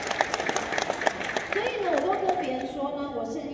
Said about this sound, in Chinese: 是的，我们值得这样子的掌声。